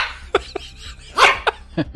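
A small female dog gives a quick series of about five sharp, high yips, with one louder bark in the middle, with no one talking.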